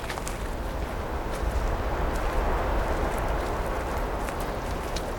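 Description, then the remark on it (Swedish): A steady, full rush of wind sweeps through big forest trees, a constant roaring hiss with faint scattered crackles and rustles, no voices and no break in the blowing. “Blåsten vajar i de stora träden.”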